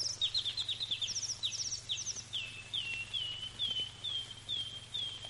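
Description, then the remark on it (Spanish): A bird sings from a tree branch in quick runs of high, bright chirps that repeat steadily throughout, clear over a faint low hum, while someone tries and fails to hit it. “Condenado pájaro, ya se escapó otra vez.”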